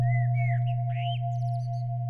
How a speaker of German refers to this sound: Die Amsel singt seit ein paar Minuten schon. Ich bin wach geworden, noch bevor sie begonnen hat. In den letzten Wochen ist es immer so. Ich wache auf, warte kurz, dann geht es los.